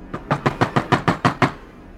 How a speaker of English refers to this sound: Knock, knock. In the attic, located right above him.